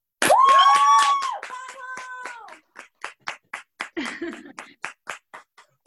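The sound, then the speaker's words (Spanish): A loud whooping cheer rises over applause welcoming a contributor, then the clapping thins to a handful of steady, spaced-out claps from a small group before fading. “Un fuerte aplauso”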